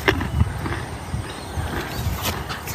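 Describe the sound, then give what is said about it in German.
A small white pony, a mare, moves about, its hooves clopping and shuffling while it snorts and breathes noisily, with no one speaking. “auch im echten Leben ein kleines weißes Pony”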